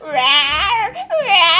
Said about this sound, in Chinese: 打猫人模仿托塔天王罩住三太子的招式，将鬼屋移来罩住猫妖，个性乖张却容易受惊吓的猫妖困在鬼屋内。屋内鬼哭神嚎，